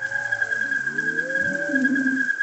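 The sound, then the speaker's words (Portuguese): A humpback whale's slow, drawn-out moans rise and fall in the background beneath a steady, continuous buzzing hum from a chorus of fish, with no voices present. “Lá no fundo, se você prestar atenção, você vai ouvir o canto langoroso da baleia jubarte.”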